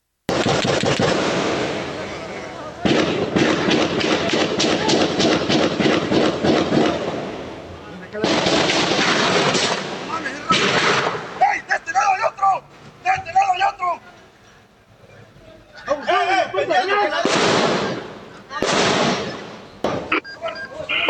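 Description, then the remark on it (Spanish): Rapid, loud bursts of gunfire crackle in dense volleys, then break into scattered sharp shots with shouting voices between them, as attackers arriving in two vehicles fire on police officers, who fight back the attack. “cuando llegaron dos vehículos más, desde los cuales se realizaron detonaciones con armas de fuego en contra de los uniformados, quienes lograron repeler el ataque.”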